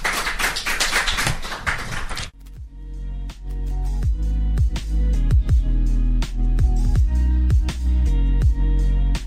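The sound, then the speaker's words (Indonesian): A short burst of applause from a studio audience for the program Rumah Kata lasts about two seconds, then cuts off as a steady musical jingle with plucked, percussive notes and a low bass takes over. “Kita kasih aplaus dulu ya untuk program Rumah Kata.”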